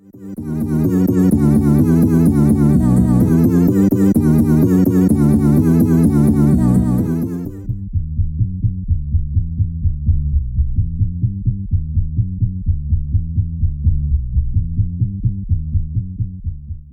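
A bright, full musical loop drops away to a heavily filtered, muffled bass line: dull, low throbbing notes pulsing in a steady repeating pattern with no voices.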